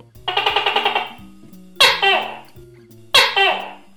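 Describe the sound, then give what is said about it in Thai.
A tokay gecko gives a quick rattling chatter, then two loud, two-part croaking calls spaced about a second apart, with soft low music humming underneath. “เรื่องมันมีอยู่ว่าเมื่อตุ๊กแกเติบโตขึ้น ผ่านวันผ่านเวลา อวัยวะภายในของมันจะเริ่มทำงานไม่ปกติ เมื่อนั้นมันจะส่งเสียงร้อง”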